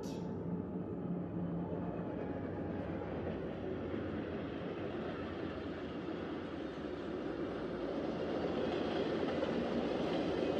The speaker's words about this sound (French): son que je vais déclencher, celui du train.